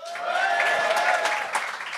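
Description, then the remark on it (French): An audience at a live show claps steadily for about two seconds, a dense crackle of many hands holding at an even, fairly loud level, with a few raised voices and whoops mixed into the applause. “Euh, il y a une des règles qu'on a rajoutées maintenant, c'est que vous devez applaudir jusqu'à temps que la personne prenne le micro en main.”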